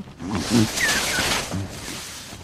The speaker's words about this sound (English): Hey, wait, you haven't mentioned the crab eater seal. crab eater seals live in the pack ice zone surrounding Antarctica. This is ice, not attached to the land, that can drift with the winds and currents. They like to grunt and groan.